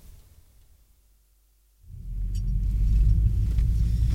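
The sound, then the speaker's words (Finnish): After a short near-silent pause, the engine of a police car fitted with a cage starts up with a deep, loud rumble close by, swelling and holding steady to the end with no voices. “Meidän auto on tässä ihan lähellä.”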